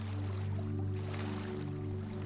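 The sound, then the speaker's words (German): A steady, soft wash of sea surf rushes continuously over a low, droning hum, with no distinct breaks between waves and no voices. “Für eine Zeit lang höre ich nur noch das Meeresrauschen.”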